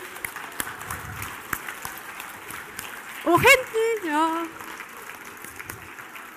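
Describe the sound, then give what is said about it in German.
A group claps their hands all around their bodies to clap out the aura and loosen the week's stress, in scattered, irregular bursts throughout, with sharp overlapping slaps rather than steady applause; a person speaks briefly over the clapping partway through. “Jetzt fangt ihr an, mal die Aura ringsrum so auszuklatschen.”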